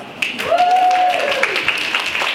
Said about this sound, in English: So this is our biggest YYC Fempreneurs event yet. So that, like, okay, we need an applause.